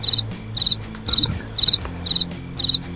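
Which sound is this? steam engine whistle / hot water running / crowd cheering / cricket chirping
cricket chirping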